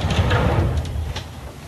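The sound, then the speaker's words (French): The door of a riverside lodging slides open directly onto the river with a low rolling rumble and a scraping hiss, lasting under two seconds, moderately loud, with no one speaking. “on sort, on, ouvre la porte. On ouvre la porte.”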